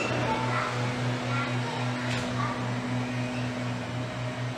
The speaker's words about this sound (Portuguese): o rapaz aqui ele sopra a rua. Ele sopra aqueles sopradores as ruas aqui